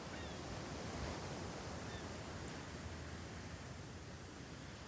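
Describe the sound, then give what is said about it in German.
A steady, full wash of ocean surf rolls on without pause, waves breaking softly in a continuous hiss and rumble at moderate volume, with no voices present. “Stell dir vor, wie du an deinem Lieblingsplatz am Meer sitzt.”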